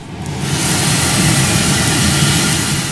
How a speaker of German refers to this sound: Zwischendurch dann beim Interview, darum wird es auch etwas laut jetzt gleich, da lief ständig diese Maschine und dann, das hören wir uns jetzt mal an, kamen da die frisch gerösteten Bohnen raus, ein ganz herrlicher, so ein erdiger Duft.